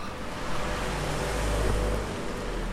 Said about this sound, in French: Il faut se dire qu'il fait nuit, qu'il y a une voiture qui part.